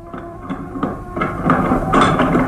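Door bolts slowly sliding back and then a door lock being worked, heard as a series of irregular metallic clanks and clicks over a steady rattling rumble that grows louder toward the end. No voices.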